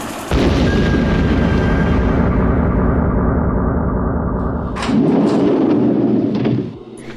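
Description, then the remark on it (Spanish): A loud, deep explosion roars and rumbles for several seconds, followed by a second booming blast with sharper crackle before the sound cuts off. No voices. “Bien, ya estamos a salvo. Por lo menos de la explosión ya.”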